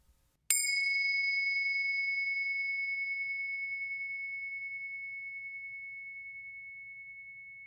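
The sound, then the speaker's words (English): A single meditation bell is struck once, ringing out clear and bright, then sustains with a long, slowly fading shimmer that continues to the end without any voices. “First, let's settle in together with the sound of the bells.”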